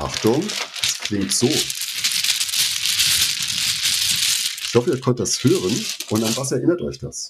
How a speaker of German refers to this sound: Es sind solche kleine Bakelit-Täfelchen, die sind Mahjong-Spielsteine.